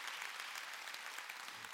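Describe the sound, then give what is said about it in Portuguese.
A church audience claps loudly for the Lord together in dense, steady applause, a continuous wash of many overlapping hand claps at an even loudness with no voices standing out. “Quem pode dar um aplauso bem forte ao Senhor?”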